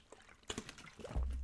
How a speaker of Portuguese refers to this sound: Espera aí, deixa-me beber primeiro água.